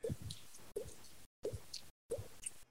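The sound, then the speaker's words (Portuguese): Someone imitates a water drop with their mouth: four crisp plops in quick succession, each with a short hollow tail, separated by brief silences. “sabe fazer a gota”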